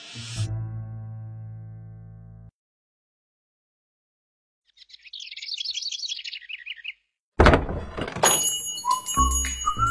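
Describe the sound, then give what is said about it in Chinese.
A door slams shut with one sudden, loud bang, followed by bright, jangling ringing tones. Earlier come a low, ringing hum and a soft, fluttering high chirp. No one speaks. “你轻点，门钥匙摔坏了，你就在这里给我修好再回去。”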